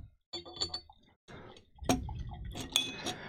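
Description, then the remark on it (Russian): A few light ceramic clinks and knocks, then a steady splashing pour of boiling water into a very cheap teapot that runs on to the end, fairly loud, with no talking. “Вот самый дешевый чайник из существующих. Наливай туда кипяток.”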